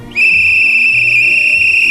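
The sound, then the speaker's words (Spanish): A man whistles one long, shrill, steady note as a human warning signal for a change of traffic lights, loud and held unbroken for almost two seconds with no talking. “Claro, que tener a un señor silbando, pues ¿para qué quieres el invento este de las lucecitas?”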